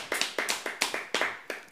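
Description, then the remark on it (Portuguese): Hands clap about a dozen times in a short, slightly uneven, sharp burst, like a small group clapping. No voices are heard. “Volta. Palmas. Palmas.”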